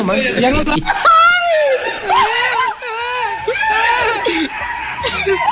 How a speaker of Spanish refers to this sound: 10 babosos gritando ahí en la feria. A ver, pon los gritos.